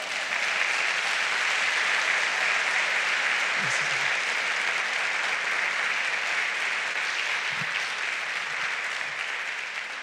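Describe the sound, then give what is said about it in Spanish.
A church audience applauds steadily for the full stretch, a dense, even wash of many hands clapping at once, fairly loud, with a couple of faint voices briefly rising beneath it. “Dele un aplauso a Dios.”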